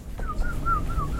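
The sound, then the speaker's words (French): Two birds calling in a thin, wavering whistle that rises and dips in quick repeated arcs, steady, over a low background rumble. “Alors attends, on, on, deux oiseaux.”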